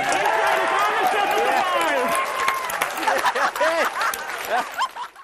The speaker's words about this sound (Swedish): Strax före klockan nio svensk tid utbröt jubel bland personalen i kontrollrummet i Los Angeles.